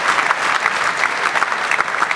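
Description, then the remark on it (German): Steady applause from an audience for the sound technician, a dense wash of many hands clapping at an even loudness for a couple of seconds, with no voices standing out. “jetzt, meine Damen und Herren, ein Applaus für den Ton.”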